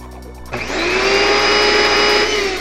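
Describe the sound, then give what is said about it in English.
A vacuum cleaner switches on abruptly and keeps running with a loud, steady motor roar and high whine. It is continuous, with no talking. “Not on the vacuum cleaner.”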